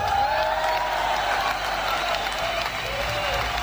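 A large audience applauding steadily, a dense wash of clapping that fills the whole stretch at a consistent, fairly loud level, with some faint cheering mixed in.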